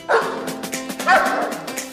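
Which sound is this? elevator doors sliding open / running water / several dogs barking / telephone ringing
several dogs barking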